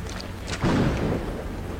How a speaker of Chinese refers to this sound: 天空再次传来一阵阵闷雷，云浪翻滚。